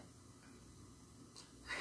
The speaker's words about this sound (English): Well, I've been holding in this cough.